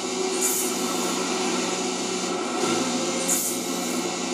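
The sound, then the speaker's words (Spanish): A car engine rumbles low and steady outside, a continuous deep drone with a faint mechanical whine and two brief airy swells, no voices over it. “¿Ese coche lo que se escucha? Sí, creo que sí. De verdad que se bien grave.”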